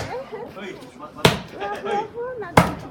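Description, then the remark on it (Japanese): Two heavy, dull thuds of a wooden mallet pounding rice cake dough at a mochitsuki event held by Network Nagata on 23 December 2023 land about a second and a half apart, loud, while people talk and call out between the strikes. “今日はお餅つき！”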